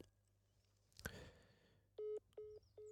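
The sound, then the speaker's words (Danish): A phone call on Funen, Denmark, cuts off over a shaky connection with a sharp click and crackle, followed by a few steady, evenly spaced beeps of a disconnected call tone, fairly loud. “Øh, godt, det er selvfølgelig fordi, at forbindelsen er lidt øh, shaky her, i, her på Fyn.”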